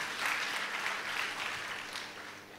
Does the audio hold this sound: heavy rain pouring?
no